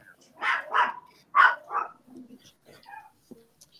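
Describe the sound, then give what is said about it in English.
A dog named Tux barks four times in two quick pairs, loud, followed by a few faint whimpers and small noises trailing off. “Tux has to get in there.”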